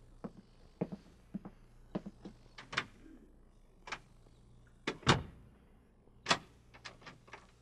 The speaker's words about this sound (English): The door will be locked. will it now?